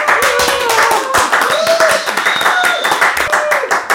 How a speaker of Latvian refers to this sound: Aplausos!